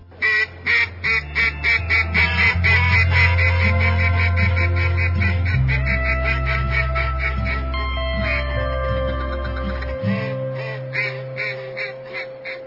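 A loud, rapid series of raspy duck quacks repeats in quick bursts throughout, with a steady low musical drone shifting pitch underneath.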